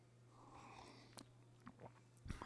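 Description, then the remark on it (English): A few quiet sipping and swallowing sounds of coffee being drunk, soft wet slurps at irregular moments, over a faint steady electrical hum, with no talking. “So let's have a sip of coffee and then uh, we'll, um, we'll pray.”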